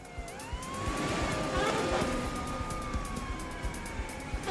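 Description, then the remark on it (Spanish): A police siren wails steadily with a long rising and falling tone, heard amid busy street traffic with rumbling engines underneath; fairly close and continuous throughout. Police sirens in Cincinnati during a bank robbery getaway in December 1995. “El sonido cercano de las sirenas evitó que la joven resultara herida de gravedad.”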